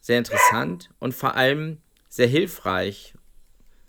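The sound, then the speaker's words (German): A dog barks a few times while a person keeps talking, the short yapping barks mixing in with the speech at moderate volume. “Äh, ich, bellst du selbst oder ist das dein Hund?”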